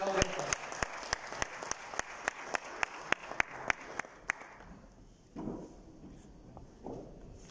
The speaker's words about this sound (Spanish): Así que les pedimos un fuerte aplauso para la doctora